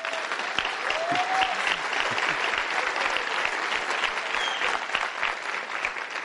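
An audience claps steadily throughout, a dense, continuous wash of hand claps at an even loudness, with a few faint whoops or cheers rising briefly above the applause.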